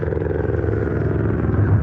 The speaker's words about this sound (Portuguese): Peraí, passando o helicóptero.